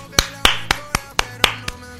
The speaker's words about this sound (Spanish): Porque mi hermana se ha quedado sin trabajo, mi hermana es una desempleada, vamos a aplaudir.